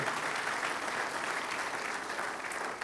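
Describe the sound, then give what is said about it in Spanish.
Steady applause from a crowd applauding loudly for God fills the whole stretch, a dense wash of many hands clapping at once, sustained without pause or fading. “Apláudele fuerte a Él, por favor.”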